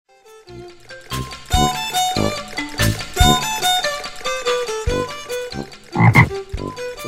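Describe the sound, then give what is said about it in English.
A frog croaks over and over in a steady run of loud, raspy ribbits, with no one talking. “Ribbit, says a frog.”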